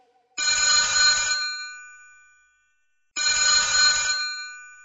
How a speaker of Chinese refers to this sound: 此时，妮妮家中的电话响了。电话的铃声划破了妮妮的震惊。